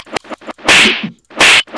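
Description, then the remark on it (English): Loud, cracking slap effects: a few quick lighter smacks lead into two hard, ringing slaps about a second apart, with no talking. “I mean really slap slap.”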